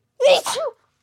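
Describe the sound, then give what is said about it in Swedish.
A single loud sneeze with a sharp two-part burst, nobody talking over it, followed by quiet. “Prosit.”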